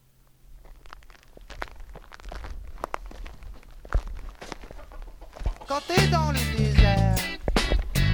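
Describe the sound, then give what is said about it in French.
Chickens cluck and squawk in short, irregular bursts, growing louder and busier toward the end, with soft shuffling footsteps and outdoor farmyard ambience underneath, at a farm on the plateau around the Gerbier de Jonc, about 2 km down toward Vals-les-Bains. “En tout cas, ça a l'air habité puisqu'il y a des poules.”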